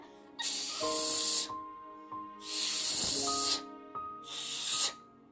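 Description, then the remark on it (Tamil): Three loud hissing bursts of steam from a pressure cooker's vent as dal (lentils) cooks for sambar, each lasting about a second with short pauses between, with a steady tonal hum underneath. “அப்படின்னு சவுண்ட் அடிச்சு முடிச்சு பருப்பு ரெடி ஆயிடுச்சு”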